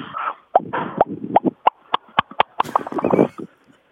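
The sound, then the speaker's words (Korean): A person vocally imitates soju being poured from a bottle, a quick run of wet clicks and glugging pops that speeds into a bubbly gurgle before trailing off, fairly loud. “준비한 거는 그 소주 따르는 소리하고 막걸리 따르는 소리인데요.”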